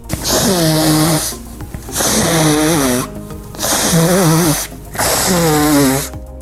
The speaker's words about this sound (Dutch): Wat is dit? Snurken. Snurken zeg jij. Ah, het is iemand die de neus aan het snuiten is.